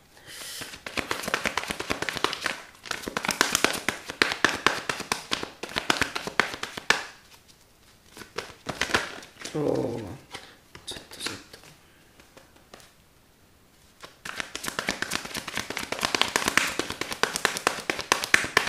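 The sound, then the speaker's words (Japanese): Steady riffling and shuffling of a deck of fortune-reading cards before a past, present, future and overall-luck reading, dense crisp papery taps in bursts, pausing briefly in the middle before resuming; no talking. “ちょっと待ってね混ぜる間はねこの混ぜてるこの音を聞いてくださいね”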